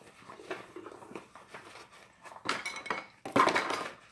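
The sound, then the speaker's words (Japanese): Dishes and cutlery clatter and clink as someone washes up the dishes left after eating on a rainy morning, with irregular knocks and scrapes that grow louder and busier toward the end, no voices present. “今日はですね、なんか洗い物をしながら収録してみるというチャレンジです。”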